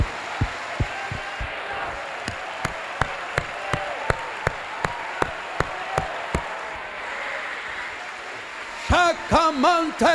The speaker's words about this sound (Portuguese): Vamos lá, solte aí as suas palmas.